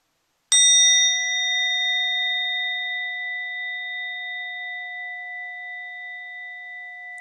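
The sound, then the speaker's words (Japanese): An orin Buddhist bell is struck once, giving a sharp metallic attack followed by a long, pure ringing tone with several steady overtones that fade very slowly over seven seconds. No one speaks. “そこでですねまずは前回お聞きいただいたおりんの音色を今一度鳴らしてみたいなと思いますよろしいでしょうかでは行ってみますね。”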